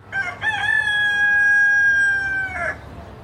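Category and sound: bird, chickens clucking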